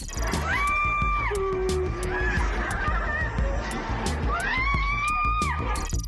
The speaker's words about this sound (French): C'est un incendie et des cris.